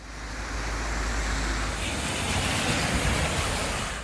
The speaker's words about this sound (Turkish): Haftalardır yağmayan yağmur geldi, yer yer sevindirmedi, üzdü yağışlar. Muğla'nın kıyı ilçeleri için yapılan kuvvetli sağanak uyarısından sonra akşam saatlerinde manzara buydu.